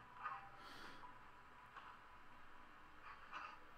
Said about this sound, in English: Doing some sniffing. Good work, doggo.